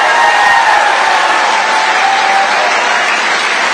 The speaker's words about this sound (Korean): 이날 트럼프 전 대통령의 마러라고 자택에는 500명 이상의 지지자들이 운집했으며 이들은 트럼프 대통령이 모습을 드러내자 환호와 함성을 쏟아냈습니다.